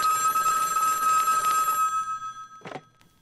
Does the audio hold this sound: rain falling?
no